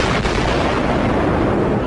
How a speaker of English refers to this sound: You heard explosions. Like, boom! We just heard one more explosion. That's about the fourth one we've heard.